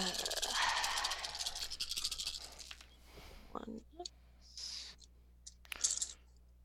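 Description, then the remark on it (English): A dense clatter of many dice tumbling and rattling together for a few seconds, then a handful of sparser clicks and small knocks as they settle. “I just rolled a shit ton of dice, and Big money, no whammies.”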